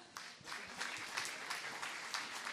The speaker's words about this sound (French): Est-ce qu'on peut applaudir juste pour dire qu'on est là